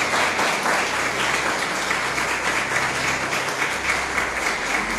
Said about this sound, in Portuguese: Glória a Deus por tudo que o Senhor tem feito. Dê um aplauso ao Senhor, a Tua palavra.